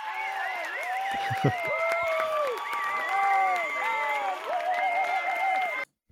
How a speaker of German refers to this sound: okay, danke, da muss danke. ein Applaus her.